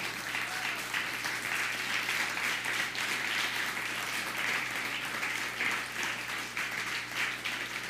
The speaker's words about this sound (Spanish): Un aplauso fuerte a las naciones.